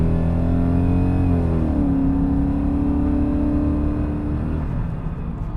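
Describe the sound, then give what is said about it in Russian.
A BMW 7 Series E38 engine runs with a steady, loud low drone; its tone shifts downward after about a second and a half, then holds even before easing slightly at the end. No one speaks. “Слушайте, но все-таки как она звучит, как она звучит, да и в принципе она е...”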